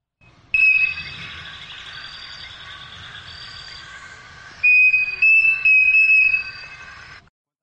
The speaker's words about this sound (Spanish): Les voy a mostrar otro que también les, va, les, va, mm, les va a mostrar de cuánto es capaz un pájaro de emitir también, así como el flautista, notas musicales tan puras.